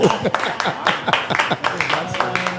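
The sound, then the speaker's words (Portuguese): A short burst of applause from a few people, with irregular, crisp claps for a couple of seconds and a voice briefly audible underneath toward the end. “Aplausos aí pro Sabal”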